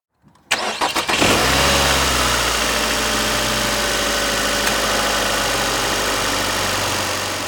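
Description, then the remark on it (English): A car engine cranks with a few quick starter bursts, catches, and settles into a steady, rumbling idle that continues to the end, with no one speaking. “Next, let's start up the car and travel north to the town that was almost named Possum Trot, and that's Kansas City.”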